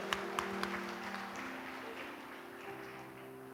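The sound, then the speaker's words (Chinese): A church audience applauds to thank someone, in a steady, dense wash of clapping, with a few sharper individual claps at the start and a low sustained hum beneath, fading slightly toward the end. “我们再次用热烈的掌声来谢谢他，也把一切荣耀都归给神。”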